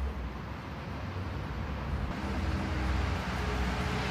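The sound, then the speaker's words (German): Steady outdoor city street traffic rumble fills the scene, a broad low roar of cars driving past with a heavier swell midway as a bus turns the corner, and a cyclist going by, with no talking. “Die Autos fahren, ein Bus biegt um die Ecke, Fahrradfahrer geht vorbei, ein Dude beißt in seinen Döner, eine Family kommt auf dem Fahrrad angefahren, kleines Klingelkind.”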